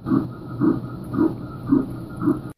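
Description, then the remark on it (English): An unborn baby's heartbeat on an ultrasound monitor: five steady, whooshing pulses in quick regular rhythm, fairly loud, with a faint electronic hum underneath and no voices. “In the absence of words, they share the sounds of their heart beating, telling you they're alive and growing.”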